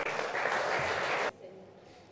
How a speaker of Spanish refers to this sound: Denle un buen aplauso al Señor, por favor.